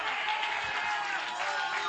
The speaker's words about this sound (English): Come on and clap your hands and shout unto God with the voice of triumph